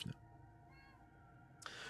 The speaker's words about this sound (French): me faisant attaquer par un chat.